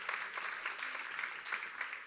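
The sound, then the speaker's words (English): A church audience claps for the Lord, many hands overlapping into a dense, bright patter of applause that holds at an even level for about two seconds with no voices over it. “Come on, somebody, give the Lord a clap.”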